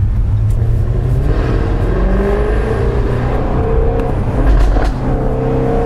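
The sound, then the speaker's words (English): A car engine drones steadily during a U-turn, with a few sharp exhaust overrun pops and crackles breaking through as the revs drop, clustered mostly near the end. “How'd you like me overrun? pop crackle, pop crackle.”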